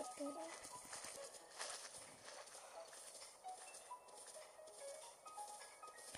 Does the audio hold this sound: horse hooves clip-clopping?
yes